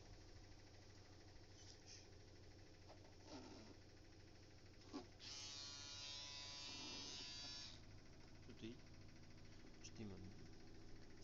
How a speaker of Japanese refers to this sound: 洗濯機回ってるよ